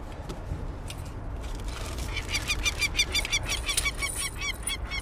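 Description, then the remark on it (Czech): Harsh, repeated screaming calls from young peregrine falcon chicks in a nest box as they are touched by hand, coming in rapid bursts that grow louder and more frantic after a quieter start, over a low background rumble. “Je to ochranná strategie, předstírají, že tam nejsou a až ve chvíli, kdy do nich šáhnu, tak začnou křičet a vlastně používat jinou strategii a to odstrašení nepřítele hlukem a svými velmi ostrými pařáty.”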